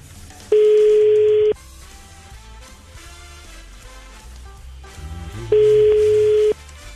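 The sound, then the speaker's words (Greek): Two long, steady telephone ringback tones, each about a second, sound several seconds apart as a radio host phones a listener and the call connects, loud and clear over quiet background music. “Και πάμε να πάρουμε την ….”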